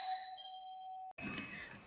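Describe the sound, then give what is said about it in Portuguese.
Someone rings a doorbell at the door: the chime sounds once with a clear, sustained electronic tone that lingers, then cuts off abruptly and gives way to a faint, noisy background. “Vieram aqui tocar a campainha, portanto, são coisas que acontecem.”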